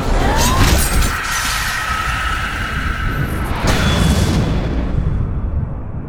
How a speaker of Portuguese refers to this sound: A espada se estilhaçou, faiscando em mil fragmentos.